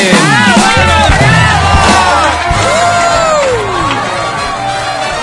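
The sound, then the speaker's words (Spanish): A loud, lively crowd cheers and applauds continuously after a sung performance, with high excited shouts and whoops rising above dense clapping, energetic throughout. “Está bien, un aplauso por favor, fuerte.”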